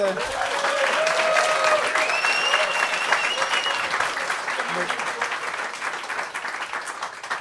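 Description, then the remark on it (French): A crowd claps steadily for several seconds to show it has enjoyed the evening so far, a dense wash of hand claps, with a few whoops and voices rising over the applause before it slowly thins out. “Donc, on va euh, bientôt passer à la période de questions, juste euh, par, euh, par applaudissement. qui a apprécié la soirée jusqu'à date?”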